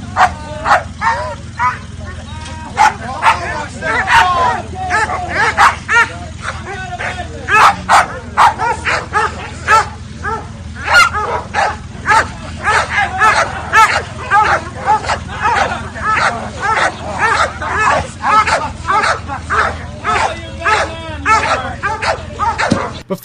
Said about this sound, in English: It's a dog.